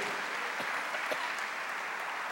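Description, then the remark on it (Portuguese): A church audience claps steadily in praise of Jesus, a dense wash of many hands applauding at an even level throughout, with no voices standing out. “No amor de Jesus, aplauda Ele de todo o teu coração, de toda a tua vida.”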